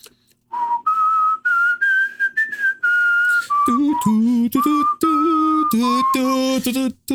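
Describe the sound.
Someone whistles a slow, lilting melody clearly, then carries the tune on by humming it in a low voice, with short pauses between phrases.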